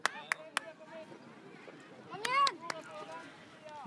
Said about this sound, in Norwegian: Dette er lyden av fotballcup. For akkurat nå så foregår den på Voss, den såkalte Voss Cup, der 7000 spillere deltar og setter Voss på huet denne helga.